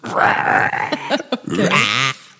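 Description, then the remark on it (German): A loud human voice imitates a pig, letting out a run of gravelly, guttural grunts and snorts that rise and fall over a couple of seconds before stopping abruptly. “Diese Schweinegrunzen.”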